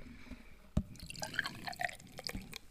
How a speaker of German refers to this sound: Okay, hier haben wir ein Glas. Hier, und hier haben wir eine Flasche. Geil. So. Und, warte, die Flasche, das schütte ich jetzt ein.